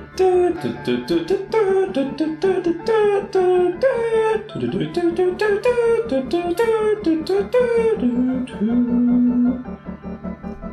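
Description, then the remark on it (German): A spontaneously improvised melody wanders up and down in gliding, sustained notes over a steady low drone and a quick, even rhythmic pulse, loud, ending on a long held tone. “Ich drop jetzt auch eine spontane Melodie.”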